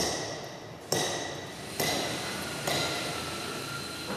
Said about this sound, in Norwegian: Inne i fabrikkhallen til Oppdal Sten gjøres håndarbeidet. Med sag, hammer og meisel skal store skiferblokker gjøres klar til å pryde Nasjonalmuseet.